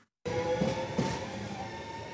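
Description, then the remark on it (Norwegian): A passenger train on Norway's Østfold Line (Østfoldbanen) runs along the rails with a steady rumble and a faint humming whine riding over the noise. No one speaks. “Toget ville bruke 28 minutter, ikke 41 som i dag, og det vil gå dobbelt så mange avganger til Moss når også Follobanen til Ski er ferdig.”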